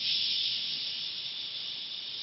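A steady, unbroken hiss of television static from a lost signal, bright and fairly loud, holding an even level for about two seconds with no voices or other sounds.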